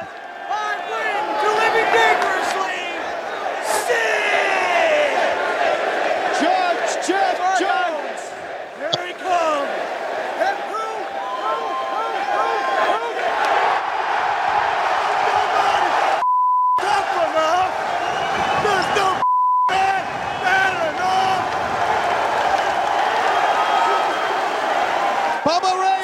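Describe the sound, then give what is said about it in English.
A large ECW wrestling crowd cheers loudly and steadily for Sid's entrance, a dense, unbroken roar. Two brief high bleeps punch through the noise partway through. “What a pop, huh?”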